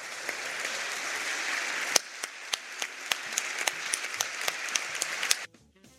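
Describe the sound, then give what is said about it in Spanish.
A large crowd in Argentina rises to its feet and applauds steadily in sustained recognition of Argentines who served others, a dense continuous wash of clapping with sharper individual claps popping out, holding for several seconds before cutting off abruptly near the end. “para todos estos argentinos que han desplegado su corazón al servicio de los demás, les pido por favor que nos pongamos de pie y brindemos un sostenido aplauso para que se sienta nuestro reconocimiento a lo largo y ancho del país.”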